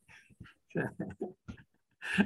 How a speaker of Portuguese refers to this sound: É o, é um cachorro imitando o gato.